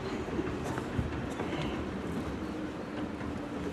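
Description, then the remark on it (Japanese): A train crossing the Chichibu Railway bridge on a sunny day with a blue sky: a steady, broad rumble with faint clattering, continuous throughout and mixed with open outdoor noise, with no one speaking. “今ちょうどね前方に電車通ってます鉄橋に。”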